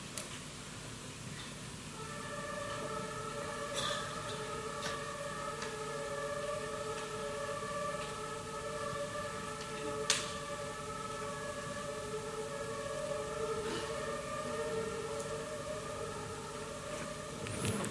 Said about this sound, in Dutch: I'm surprised to, to hear a lot of uh, ambulance. Uh, one room is small town, small city, but uh, oh. Ik ben verbaasd vanwege al die ambulances, want Walbro is zo klein, maar.